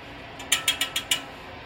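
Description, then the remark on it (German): Five sharp metallic knocks in a quick, fairly even rhythm, bright and ringing, rapped first on the right and then on the left of the blades fixed to a turbine's sphere, with a steady background hiss and no talking. “Ich klopfe mal an, ich stelle mich jetzt in die Mitte, klopfe an die rechte und jetzt an die linke.”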